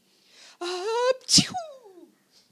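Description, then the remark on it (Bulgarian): A voice acts out the sneeze of a lion with a cold: a rising, strained vocal wind-up followed by one loud, explosive burst that trails off into a descending moan, alone. “Сто пъти кихнах.”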